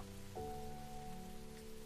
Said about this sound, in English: You hear it really pick up on the cobblestone, pooling into neat little puddles that make the sound of the rain echo further and further.